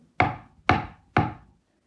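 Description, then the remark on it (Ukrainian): Three firm knocks on a wooden door, evenly spaced about half a second apart, fairly loud, each with a short resonant decay, and no voices. “Тільки дід устиг мед забрати, а у двері знову.”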